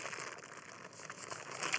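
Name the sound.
bag being crinkled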